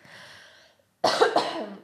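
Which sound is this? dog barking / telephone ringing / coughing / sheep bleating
coughing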